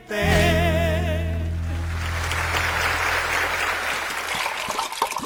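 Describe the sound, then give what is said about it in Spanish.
Water heating in a kettle for mate, a steady hiss and low rumble with scattered bubbling clicks, after a brief wavering tonal sound fades at the start. No talking. “Ya calentamos más agua.”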